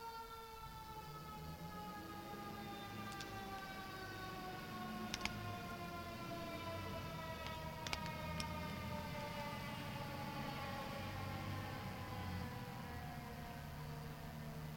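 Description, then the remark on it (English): A steady, wailing emergency vehicle siren fills the whole stretch, its pitch slowly drifting as it passes, with a couple of faint clicks and no talking. “We're going to pause just for the uh, sirens to go by real quick.”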